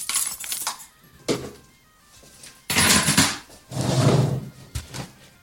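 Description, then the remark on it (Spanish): A chair scrapes and bumps across the floor in several loud bursts of shuffling and knocking over a few seconds as someone changes seats, with no one speaking. “Nada, ya habéis oído seguramente el cambio de silla.”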